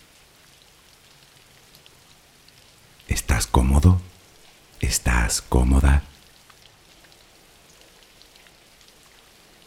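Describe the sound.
Soft, steady rain patters throughout as a gentle background hiss for a sleep relaxation session, while a calm voice speaks two short phrases over it.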